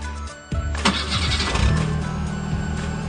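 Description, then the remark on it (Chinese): A car engine cranks and catches at about half a second as a man gets into the car on a snowy day, starts it and drives away, then settles into a steady low rumbling idle with a slight rev, no voices present. “说完，他坐进车里，发动着汽车，朝欧阳雪笑着摆摆手，开车走了。”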